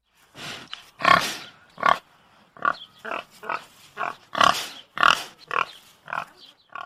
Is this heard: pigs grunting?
yes